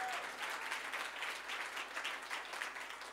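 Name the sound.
audience clapping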